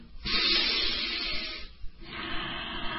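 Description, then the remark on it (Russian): A person imitates heavy, hissing breathing: a long, loud airy hiss for over a second and a half, a brief pause, then a second, slightly softer hissing breath. “Смотрите, вот так они делают, дышат.”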